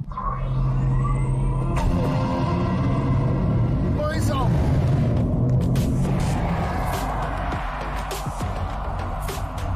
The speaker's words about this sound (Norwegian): Og nå skal vi ut og se litt på hva alle disse hestekreftene har å by på når vi tråkker gasspedalen i bånn. Så da setter vi bilen i Sport Pluss, holder bremsen hardt inne og gir full gass. Slipper bremsen, og så ser vi hva som skjer.